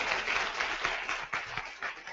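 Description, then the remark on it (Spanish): A crowd breaks into steady applause given to the Lord, many hands clapping at once in a dense, continuous patter that holds at an even level throughout the short stretch, with no voices standing out. “No, si le dan un aplauso al Señor es para el rey, a mí no me está aplaudiendo.”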